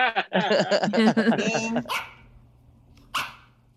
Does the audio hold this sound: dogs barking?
yes